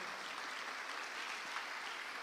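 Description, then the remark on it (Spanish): An audience claps loudly for God, the King of Glory: a dense, steady burst of applause, with many hands blending into a continuous crackling roar, no pauses and no voices standing out. “Usted le regala palmas fuertes al Rey de la Gloria.”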